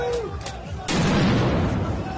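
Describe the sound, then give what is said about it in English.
A couple of faint pops, then a sudden loud blast from bombs thrown at a street protest, rolling into a sustained, roaring rumble, with muffled crowd voices mixed underneath. “throwing bombs.”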